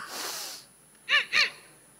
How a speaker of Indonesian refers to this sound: Kenapa? Saya cuma diajarin napas, napas, napas. Udah kayak ban kempes aja.